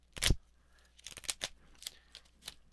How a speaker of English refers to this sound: I'm going to drop it on the desk. That's a pile of postcards that I have received over most of 2021 and into 2022.